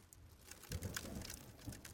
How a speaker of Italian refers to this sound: Sono sotto la pioggia.